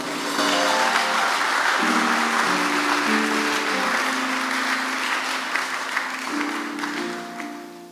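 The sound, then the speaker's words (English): A church audience claps together as a clap offering to the Lord during prayer, in sustained, dense applause for several seconds, while a steady keyboard or organ plays sustained chords underneath before the clapping gradually thins out. “In the name of Jesus, give the Lord a clap offering.”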